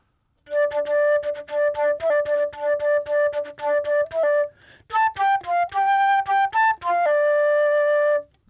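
A solo flute plays a lively rock melody, first repeating a steady tongued note pattern, then moving through higher phrases before returning to the opening figure, clear with no voices.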